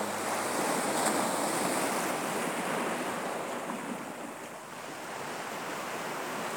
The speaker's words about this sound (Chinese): 你现在正坐在海边。听着大海的声音，那个波涛的声音，